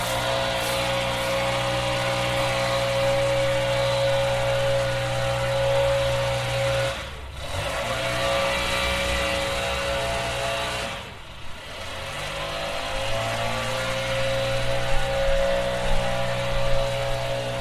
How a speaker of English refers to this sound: Yes, across the street, and to be fair, full disclosure, there are people who come by and mow our lawn, and they use a leaf blower too. So it's not only this neighbor, I do it too.